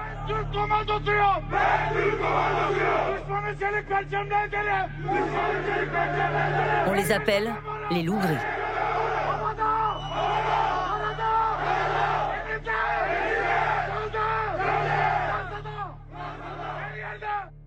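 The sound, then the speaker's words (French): A horde of young Franco-Turkish ultranationalist men chanting and shouting as they overrun the streets of Vienne, Isère, France, in October, loud rhythmic yells and cries repeating throughout, with a brief sharp burst midway and a voice speaking over the din near the end. “En octobre dernier, une horde de jeunes franco-turcs ultranationalistes envahit les rues de Vienne, en Isère.”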